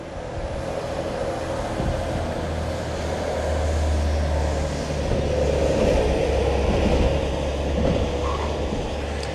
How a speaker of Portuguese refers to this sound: Um ônibus repleto de pessoas acabou de passar.